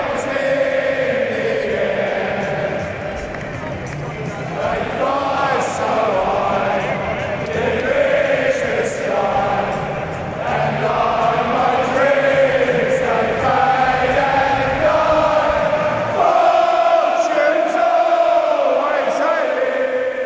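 A huge crowd of West Ham fans at the London Stadium sings the Hammers' club anthem together to celebrate their return to the stadium, voices swelling in a loud sustained chorus with melodic rises and falls, echoing across the stands for the whole stretch.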